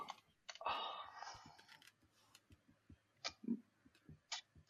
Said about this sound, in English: Listen to this keyboard. Oh, someone's showing off about his mechanical keyboard.